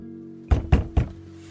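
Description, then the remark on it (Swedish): Three firm knocks on a door by a man in the evening, evenly spaced in quick succession, clear over a low steady hum. “Men på kvällen när Gunnar återvänt från dykningen vid den ryska spiontrålaren på Öresundsbotten knackade på dörren.”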